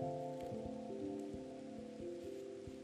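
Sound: heavy rain falling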